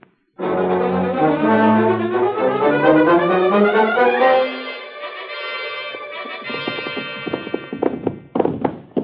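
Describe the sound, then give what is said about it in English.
A loud brassy musical chord swells and fades, then horse hooves clip-clop in a quick, uneven rhythm, growing sharper toward the end. “Let's get our horses.”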